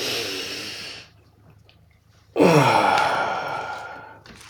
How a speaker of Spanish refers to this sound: Vamos a respirar.